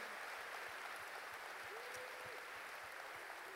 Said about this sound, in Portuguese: pode dar um aplauso ao Senhor pelos músicos, pelos cantores dessa casa?